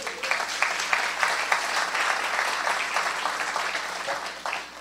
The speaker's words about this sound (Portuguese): Será que você pode aplaudir Jesus?